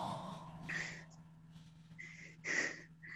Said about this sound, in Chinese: 老别老别老喘气儿，老妹儿，哎哎，一会儿这期这期节目给我禁了，别老喘气儿，不好。